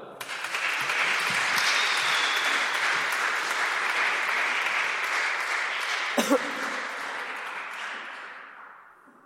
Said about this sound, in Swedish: Vi tackar de här fyra med en applåd.